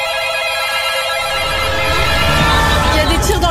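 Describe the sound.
Telephones ring with calls to the police at the opening of the film Novembre, in steady, overlapping electronic tones, while a low rumble and indistinct voices swell underneath and grow louder halfway through.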